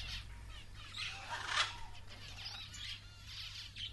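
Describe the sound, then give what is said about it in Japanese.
Soft, high bird chirps flicker throughout, peaking briefly mid-way, over a faint steady low hum, as a bird that senses fine tremors quickly vanishes from view; no clear wingbeats stand out, and the calls stay quiet. “細かな震えを感じた鳥はさっと視界から消えた”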